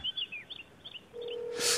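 Telephone dialing tones from a call placed on Park Myung-soo's radio show to an unannounced guest: a run of short, high electronic chirps, then a steady lower tone that holds for under a second before a brief burst of noise. No voices.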